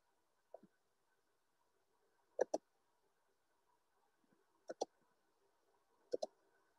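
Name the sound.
computer mouse clicks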